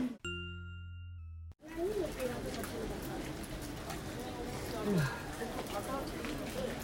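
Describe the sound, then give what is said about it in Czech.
A brief two-tone chime rings out, then steady, heavy rain hisses continuously and fairly loudly for several seconds in Nikkō, Japan, with faint voices murmuring in the background. “Zvuk deště.”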